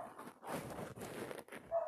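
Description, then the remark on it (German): A dog barks several times in quick, uneven bursts, sounding muffled, with no one talking. “Vielleicht hört ihr es. Der Hund.”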